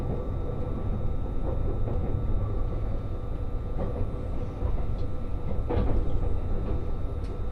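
Steady rumble of a diesel train, the Resort Shirakami No. 4 on the Gonō Line between Ajigasawa and Fukaura, Japan, heard from inside a carriage as it nears Fukaura: a constant low drone with a faint whine and occasional clanks and knocks from the rails, with no talking.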